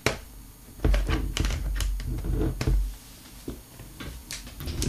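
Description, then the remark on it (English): Typing on a computer keyboard, fairly loud: a quick, irregular run of sharp key clicks, some in rapid bursts, with brief pauses between them and no one talking. “Um, I'll actually attach, I'll go over here uh, grab the keyboard.”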